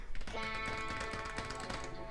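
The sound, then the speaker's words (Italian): A short musical jingle of sustained, bright harmonic tones with a steady patter of typewriter-like taps and clicks running through it, fairly even in loudness, with no one speaking. “Guarda, senti il jingle.”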